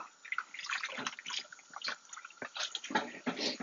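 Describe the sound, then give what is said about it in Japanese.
Water runs from a tap in a steady, splashy stream while dishes are being washed, with bright bursts and clatters as it hits something below, fairly loud throughout. “これ水の音結構入っちゃうのかな。”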